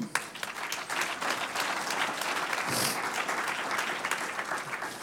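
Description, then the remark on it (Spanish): An audience bursts into steady applause for the Lord, many hands clapping in a dense, continuous patter that stays fairly loud and even for about five seconds, with no voices standing out. “Un aplauso al Señor.”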